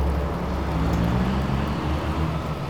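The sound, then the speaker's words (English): A fire engine's heavy engine rumbles behind, following along as it drives, a steady low drone with no siren, continuous and fairly loud throughout, with no one talking. “I'm being followed by a fire engine.”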